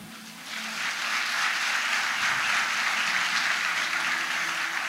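An audience applauds a young man who has come up to help the speaker, a dense wash of many hands clapping that swells within the first half second and holds at an even level to the end, with no voices.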